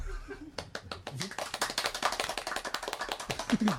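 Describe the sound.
A small group applauds at a wedding reception. The claps start sparse and quickly build into steady, dense clapping that continues throughout, with faint voices briefly audible near the start and end.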